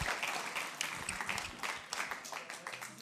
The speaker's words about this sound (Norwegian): Gi dem en applaus. God applaus.